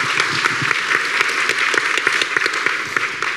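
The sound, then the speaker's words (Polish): An audience applauds for the first person who writes about dreams and wishes, a dense, continuous patter of many hands clapping at even loudness throughout, with no voices standing out. “Przepraszam, brawa dla pierwszej osoby, która pisze o marzeń i życzeniu”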